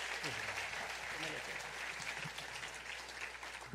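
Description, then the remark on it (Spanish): A church audience applauds in gratitude to God after a prayer, with steady, dense overlapping clapping that stays loud and even for the whole stretch, with faint voices mixed in underneath. “Gracias por tu palabra en el nombre de Jesús y te damos este aplauso de gratitud por lo que vas a hacer con ella en nuestras vidas.”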